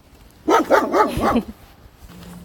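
A dog barks four times in a quick, steady burst, loud and fairly close, then falls quiet against a soft background hum.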